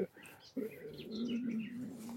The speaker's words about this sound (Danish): Øh, nu burde jeg jo vide, hvad det var for en fugl. en munk, tror jeg, det er.